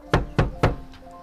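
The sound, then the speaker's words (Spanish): Three firm, loud knocks on the door of a home in quick, even succession, made by men bringing a royal order to search it, followed by a faint fourth tap and a low lingering hum. “¡Abra la puerta, Mariana! Sabemos que está usted dentro.”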